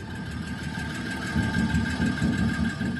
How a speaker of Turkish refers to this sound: Sana Cemse motoru sesiyle cevap veriyorum.